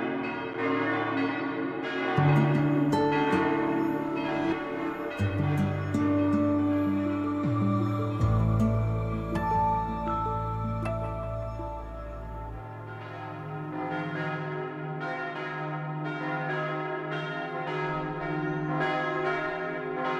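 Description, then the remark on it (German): Church bells of St. Oswald church in the old town of Zug peal continuously before a Roman Catholic service, several overlapping tones, rich resonant strikes layering into a loud, sustained ringing with deep humming undertones and no voices. “Und hier hören wir Glockengeläut der Kirche St. Oswald in Zug.”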